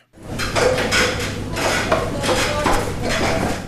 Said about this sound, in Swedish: målmedvetet klättrar upp längs med stegen som rests från skybarens golv rakt mot en öppning i taket. Genom öppningen kommer han vidare ut på ett mellantak utomhus och där väntar följande steg.